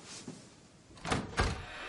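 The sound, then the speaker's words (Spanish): A door opens with two quick clunks, a softer latch sound followed by a louder thump, over a faint background hiss with no voices. “Abre una puerta.”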